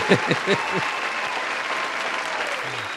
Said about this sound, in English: that nigga gave us a soldier clap, bro.